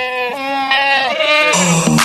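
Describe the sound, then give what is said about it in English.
A person imitates a goat with a loud, wavering bleat, a strained nasal cry that shifts pitch and breaks into a higher quavering note near the end. “Are you the throat goat again?”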